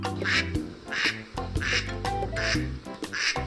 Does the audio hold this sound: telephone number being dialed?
no